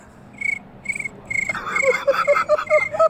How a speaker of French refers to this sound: est-ce que tu peux juste nous faire le bruit quand il va dire son truc Tu nous fais le bruit des, grillons.